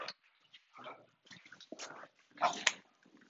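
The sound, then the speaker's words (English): Several dogs whimper and whine excitedly as their owner comes home, in short overlapping bursts with a louder high-pitched yelp near the end, mixed with snuffling and movement. “Yeah, hi, puppies. Hi, puppers.”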